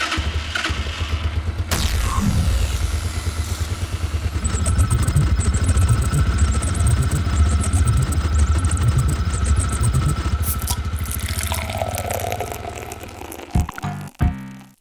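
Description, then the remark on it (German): A small pull-start engine is started by pulling its cord and runs loud, chugging and sputtering unevenly with a rough rattling idle before it cuts out near the end. “Ja, wieder ganz schön am Keuchen, die da, Kiste.”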